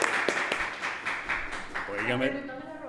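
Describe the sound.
Live audience applause, not prerecorded: a dense patter of many hands clapping at steady loudness, with voices rising over it in the second half as the clapping continues beneath.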